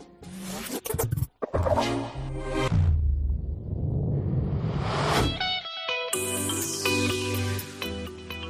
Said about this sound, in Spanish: y vamos a terminar ya la canción con la que, la versión con la que cerramos es eh, la que escuchamos en versión house que suena así.